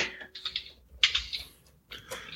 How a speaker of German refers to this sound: Ja, ich tippe ja sonst wirklich viel, aber Edelsteinsplitter ist mir dann doch zu doof.